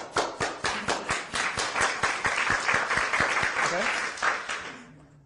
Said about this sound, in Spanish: Un aplauso.